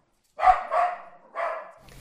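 A Russian rescue dog barks three times in quick succession, clear, with a short pause before the third bark. Nobody speaks.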